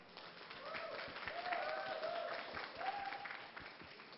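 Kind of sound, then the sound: crowd, audience applause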